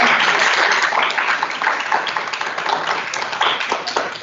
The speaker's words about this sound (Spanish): Entonces, muy bien. Vamos a un fuerte aplauso.